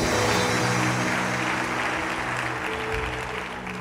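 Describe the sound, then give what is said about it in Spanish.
A crowd claps loudly and continuously for several seconds, giving loud applause to the Lord, a dense wash of applause with a steady, sustained rumble beneath it, tapering only slightly toward the end. “Si lo cree dele un aplauso fuerte al Señor.”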